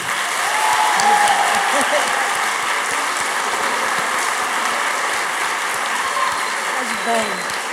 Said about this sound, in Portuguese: Obrigada. Palmas para ele.